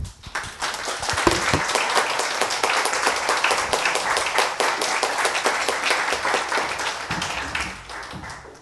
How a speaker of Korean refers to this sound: 교수님 나오시면 큰 박수 부탁드리겠습니다.